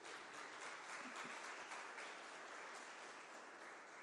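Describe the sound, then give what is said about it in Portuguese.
A church audience applauds the Lord Jesus steadily, a dense wash of many hands clapping at once, sustained and even in loudness for the whole stretch with no voices standing out. “E se você quer nisso, aplauda ao Senhor Jesus.”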